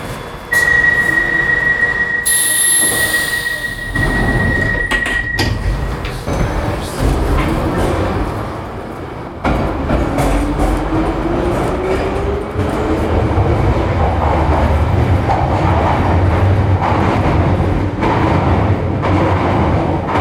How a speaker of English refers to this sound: This is a Piccadilly line service to Uxbridge.